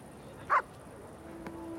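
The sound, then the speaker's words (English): Two German shepherds, one named Marco, bark playfully while chasing each other off the leash on the grass of the Kurgarten public park, two short, bright yaps about a second apart over a quiet outdoor background with no talking. “He's soon joined by another dog, the same breed, the animals chased each other, frolicking, barking playfully.”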